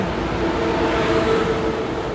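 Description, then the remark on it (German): Steady, loud rumble of an older-model ICE high-speed train departing in Germany, a broad roar of wheels and air with a faint humming whine running through it, continuous, with no voices. “Haben wir noch ein bisschen ICE-Atmo gehabt.”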